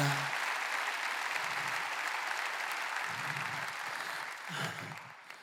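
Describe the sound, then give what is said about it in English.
A large crowd claps together in sustained, dense applause, steady and loud throughout, with faint cheering voices rising here and there beneath the clapping, as a church audience rejoices. “Oh, clap your hands like you're rejoicing because you remember what it's like to be the one.”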